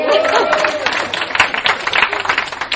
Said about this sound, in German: mein Mann ist, also wir sind, ich bin seit elf Jahren, fast elf Jahren verheiratet, Applaus bitte, das ist yeah.